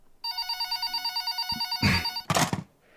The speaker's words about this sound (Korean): 그렇게 새벽 4시가 됐을 즈음 갑자기 울려대는 전화벨 소리에 화들짝 놀라 정신을 차리고 급히 수화기를 집어들었다.